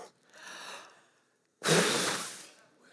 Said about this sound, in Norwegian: Eh, så er det sånn at det ligger stille og rolig, men med en gang jeg blåser på det, så er det Så dere det? Nå skal jeg blåse så hardt jeg kan.